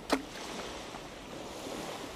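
Steady ocean waves wash and hiss continuously, with a brief sharper burst of spray right at the start, then a constant surf roar with no voices.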